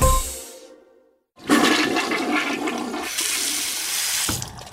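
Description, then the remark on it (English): A toilet flush sound effect plays loudly, a sudden rushing gush of water after a brief pause, churning steadily for a few seconds before dropping off abruptly. No one speaks. “Don't worry, I didn't actually just go to the bathroom. Those were just sound effects.”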